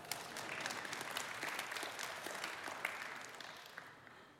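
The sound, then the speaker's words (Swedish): An audience claps steadily, a dense patter of many hands sustained for several seconds before gradually thinning out toward the end, with no one speaking over it. “Ja, det är värt en applåd, tack.”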